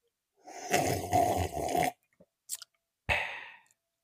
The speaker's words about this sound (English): I'm going to take a sip of this coffee.